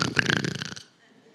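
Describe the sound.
A voice imitates a loud snore, a harsh, rattling rasp lasting under a second, then cutting off into near silence.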